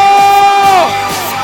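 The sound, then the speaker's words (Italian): A loud, sustained roar of a crowd of men in Porto Cervo shouting together, one strong yell sliding in pitch above the crowd before the cheering carries on steadily. “Non sento! Vorrei sentire gli uomini Porto Cervo!”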